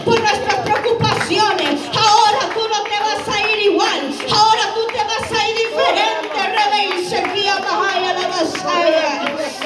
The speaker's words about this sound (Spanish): Oh, denle un aplauso al Rey de Reyes porque Él se lo merece. Denle un aplauso al Rey de Reyes que murió en la cruz del Calvario.